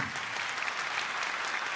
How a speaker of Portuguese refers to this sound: Queria que vocês aplaudissem esse rapaz querido.